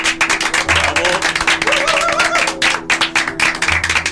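An audience applauds steadily for about four seconds at the end of the first live broadcast of the radio show Psicofonías, many hands clapping in a dense, continuous patter, fairly loud, with a faint low hum underneath.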